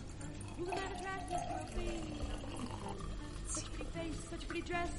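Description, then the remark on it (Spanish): Champagne pours steadily into a glass of liqueur to make an aperitif cocktail, lasting several seconds: a continuous fizzing, splashing stream with a bubbly hiss, while muffled voices murmur underneath. “Pones el, el, licor que lo consigues en muchas partes y le añades el champán.”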